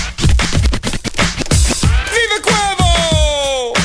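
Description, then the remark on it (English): A DJ's turntable chirp scratch cuts repeatedly over a punchy beat, with quick stuttering swipes giving way to pitched, sliding squeals that bend downward, loud with no voices. “You got the chirp, for example.”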